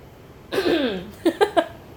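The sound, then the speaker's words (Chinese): A rough, drawn-out throaty sound gives way to three short, sharp coughs in quick, evenly spaced succession, almost in rhythm, with no talking around them. “咳嗽啊，咳在拍子上。”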